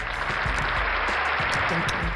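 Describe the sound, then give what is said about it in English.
A steady burst of applause, dense overlapping clapping that holds at an even, fairly loud level for a couple of seconds, with faint voices murmuring underneath. “We can applaud that, goddamn it.”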